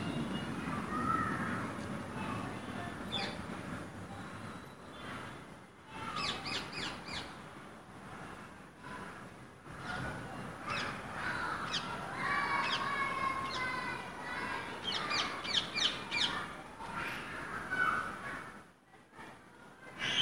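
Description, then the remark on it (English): Harsh, screechy rose-ringed parakeet calls repeat in ragged bursts throughout, loud, with several birds squawking over one another against a steady background hiss. “best matches, rose ringed parakeet”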